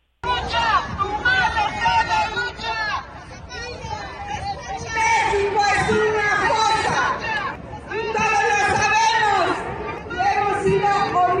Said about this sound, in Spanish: En la Ciudad de México, los colectivos partieron del Monumento a la Madre, conformando la doceava Marcha por la Dignidad. Gritaron consignas como hasta encontrarte o no hay nada que celebrar. Escuchemos parte de lo que se vivió el día de hoy.